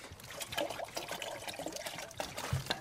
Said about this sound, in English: So I give him a splash of water now so he can have a little drink.